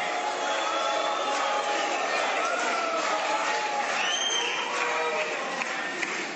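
A large crowd whistles and boos in disapproval, a loud, continuous din that never lets up, with shrill whistles piercing through near the middle.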